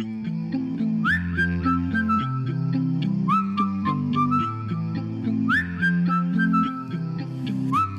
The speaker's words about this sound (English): When you blow that whistle, you say cheery whistle, I say bum.